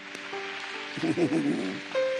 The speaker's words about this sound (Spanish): Denle un fuerte aplauso a aquellos que recibieron a Cristo.